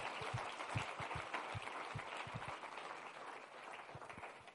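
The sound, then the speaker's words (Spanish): A church audience applauds steadily, many hands clapping at once in a dense, continuous wash of sound that holds fairly level throughout, with no voices standing out. “Den un aplauso si lo cree.”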